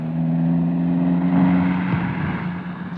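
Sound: car engine accelerating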